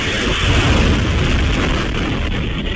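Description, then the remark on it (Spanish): A loud, sustained roar of bomb explosions from a missile strike on Kyiv, Ukraine, a dense rumbling blast that stays steady for a few seconds without clear separate bangs and with no voices. “Este era el sonido de esas bombas que han caído a pocos kilómetros de donde se encontraba Guterres”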